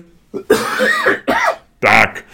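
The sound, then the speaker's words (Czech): A man clears his throat loudly, a few rough, raspy bursts in a row with brief pauses between them and no talking. “odkašlej si.”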